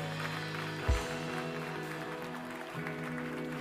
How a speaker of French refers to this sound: Amen. Amen. On applaudit fort Jésus.